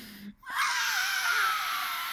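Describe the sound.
A voice imitates a baby's sudden, piercing scream-cry, showing how a baby with an explosive temperament wails when its arm is moved or its bottle is taken away: a single sustained wail that starts abruptly after a brief pause and holds loud and strained.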